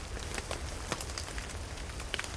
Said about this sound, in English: and wish for rain, and then it rains。希望能够下一点雨，滴滴答答，真的下雨了。